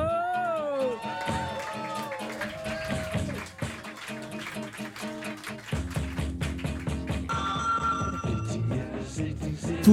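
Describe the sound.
An audience applauds and cheers, dense clapping running throughout with rising voices and shouts layered on top, growing busier toward the end.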